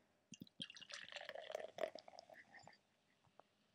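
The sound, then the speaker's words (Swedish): Julmust soda pours into a glass, a quick run of splashing and fizzy crackling that fades after a few seconds, with a couple of small drips at the end. “Jag ska hälla också.”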